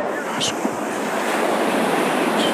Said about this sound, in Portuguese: Muito barulho de vento.